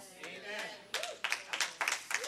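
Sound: a few people clapping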